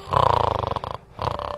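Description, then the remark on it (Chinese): Loud, rattling snoring from an old man sleeping under a tree: a long, rough inhale that buzzes for most of a second, a brief pause, then another snore beginning. “鼾声又响起来”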